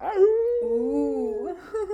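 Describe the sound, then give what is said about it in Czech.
A person imitates a wolf howling from a surrounding forest after dark, with a drawn-out, wavering vocal wail that rises and bends in pitch for about two seconds, fairly loud, with no talking. “A z ničeho nic, prostě se z lesa, protože okolí byl les, ozval také jako vytip.”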